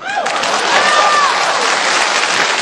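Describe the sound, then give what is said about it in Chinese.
A crowd breaks into steady, dense applause as a stage performer announces a magic trick, making a person appear; the clapping starts abruptly and holds at an even, loud level, with a brief rising whistle-like tone cutting through. “变个简单的吧，大变活人，还简单啊，没有人鼓掌啊。”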